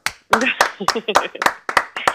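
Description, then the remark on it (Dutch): Sharp, bright hand claps ring out in a loose, uneven rhythm, about eight in two seconds, mixed with voices calling out and chattering over them. “Niet normaal, man. Applaus.”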